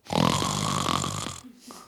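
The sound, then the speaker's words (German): A voice imitates a long, contented snore: one drawn-out, rumbling breath that lasts over a second, loud, then trails off into a soft, brief wheeze. “Er schnarcht genüsslich.”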